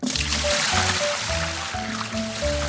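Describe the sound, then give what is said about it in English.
Liquid pours in a steady, continuous splashing stream, fairly loud, over a low repeating tonal pattern in the background. “Go ahead and pour me in there”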